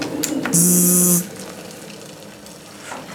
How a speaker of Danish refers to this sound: Prøv jeg jo lige ved at hælde kogende vand ud over mig selv. Det er dumt, hvis ikke du var klar over det.